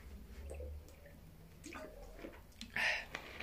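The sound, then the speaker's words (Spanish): A person pauses while speaking to drink water, with soft, wet sipping and swallowing noises that are mostly quiet, then a brief louder gulp or slosh near the end. No one speaks. “Permítanme, voy a tomar agua.”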